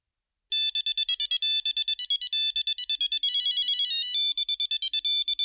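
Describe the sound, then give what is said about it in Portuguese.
A mobile phone rings with a bright, electronic melody of a classical tune, quick notes tumbling one after another, loud, playing on its own with no voices. “Olha aqui a minha música clássica preferida.”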